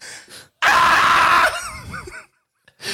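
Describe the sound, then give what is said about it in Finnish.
A loud, strained human scream bursts out and holds for about a second, then wavers and trails off in a falling, quavering cry, a voice acting out the story character Pene falling from the sky when his wings give out during a forced landing. “Mutta siivet eivät jaksaneet enää kauaa ja Pene huu- putosi huutaen.”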